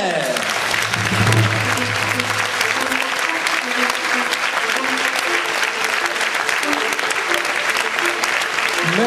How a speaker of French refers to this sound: S'il vous plaît, des applaudissements de tonnerre